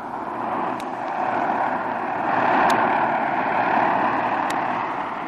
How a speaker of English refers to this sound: As Jim's plane glides to a landing, two men seated on the running board of an automobile scrutinize the approaching plane closely and then slowly get to their feet.